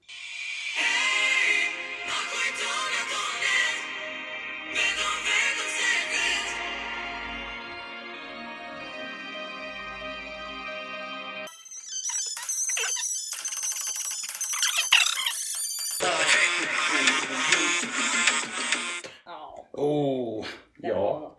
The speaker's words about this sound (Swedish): är ju någon slags Balkan dance pop med latino beats.